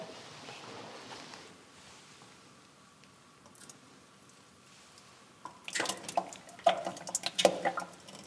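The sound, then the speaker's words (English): After a few quiet seconds, cream skimmed from Jersey cows' milk is poured from a height into a butter churn at Audley End House to aerate it, making irregular splashing and dripping bursts that grow louder toward the end. “The cream rises to the top, and I scrape that off into a jug and then pour the cream into the churn. Now I tend to pour it at quite a height so that it aerates, so that it turns quicker.”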